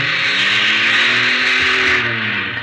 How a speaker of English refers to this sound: He was tense. His knuckles turned white as he clutched the wheel. He, he shoved the car into reverse. Oh, I hoped it had never moved.